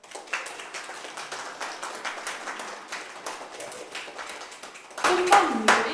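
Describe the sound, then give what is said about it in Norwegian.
An audience claps steadily for a band's saxophone section, a dense patter of many hands that swells louder near the end, where cheering voices and a whoop rise over the applause. “Da må vi ha applaus for dem.”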